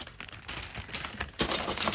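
Bottles, jars and packets, including body lotion, hand medicine, lip balm, hand cream and two months of medicine packs, being tidied off a small desk: a busy run of light clacks, taps and crinkly plastic rustles, irregular and moderately loud, with no one talking.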